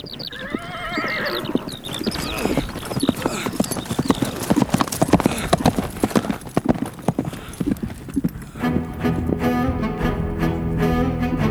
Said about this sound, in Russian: Полудикий татарский конь несется сквозь заросли и через степь. К нему привязан обнаженный молодой мужчина. Проходит день и ночь, а конь все скачет и скачет.